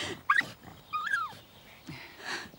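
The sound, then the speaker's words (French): A small dog whimpers in a few short, high-pitched whines with brief pauses between them, fairly quiet, with faint breathy sounds in between. “Ce sont désormais des chiens de chez nous que vous choisirez.”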